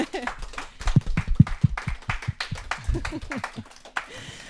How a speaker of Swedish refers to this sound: En applåd! Ja, härligt.